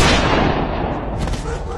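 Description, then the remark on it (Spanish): A loud, booming movie-style gunshot rings out right away, trailing into a heavy rumbling echo, with another sharp burst of noise roughly a second later. “El héroe salva la situación con un disparo mortal.”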